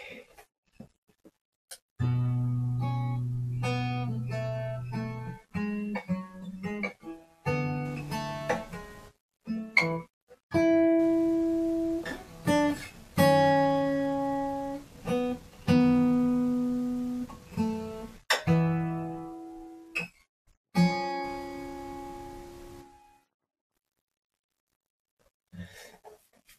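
A solo Gibson J-45 acoustic guitar played fingerstyle, clear, practicing a song's intro, recorded with a lavalier microphone, with plucked notes and chords ringing out and decaying, phrases separated by short pauses, ending in a few seconds of silence.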